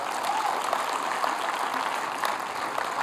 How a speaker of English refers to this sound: If you believe in that, give Jesus one big round of applause.